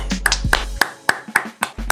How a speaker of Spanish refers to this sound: Y nos da mucho, mucho gusto y vamos a recibir con mucho cariño y con un fuerte aplauso